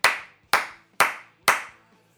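hand clapping

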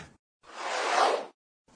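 whoosh transition sound effect

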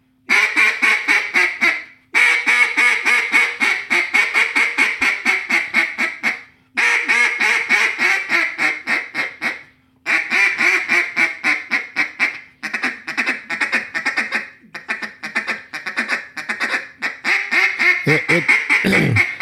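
duck call blown

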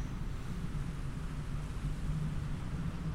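thunderstorm rumble

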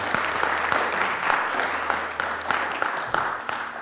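audience applause

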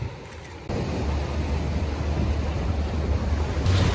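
waves washing

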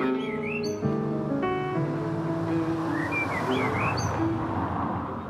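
birds chirping

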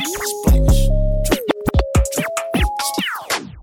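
DJ turntable scratching

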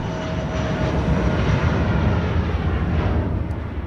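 airplane engine roar

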